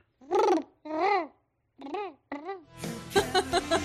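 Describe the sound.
A person imitates a dove's cooing with four drawn-out, rising-and-falling hums in a steady rhythm, fairly loud, then breaks into laughter.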